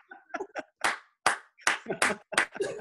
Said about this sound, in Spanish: tú llega y haz como el cuento del aplauso lento. ¿Cómo es eso? Que se empieza escuchando nada más el coñazo.